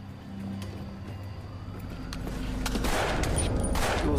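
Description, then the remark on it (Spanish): A volley of gunfire during a police shootout with armed suspects in a pickup truck: several sharp, irregular cracks over a steady low engine rumble that swells louder through the second half. No one speaks. “Era como si pudiera sentir la bala pasando.”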